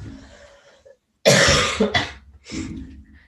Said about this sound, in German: Dieser hustet ein bisschen. Entschuldigung.